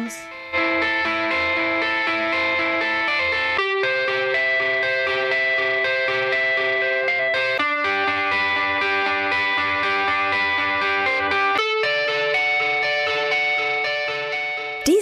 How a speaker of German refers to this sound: Die, Abschluss, die Abschlussmelodie läuft auch schon die ganze Zeit.